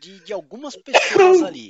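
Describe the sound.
A person speaks briefly, then lets out a single loud sneeze that bursts out and trails off over about a second.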